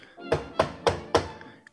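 Four firm knocks on a door in a steady, evenly spaced rhythm, moderately loud, with nothing else happening around them.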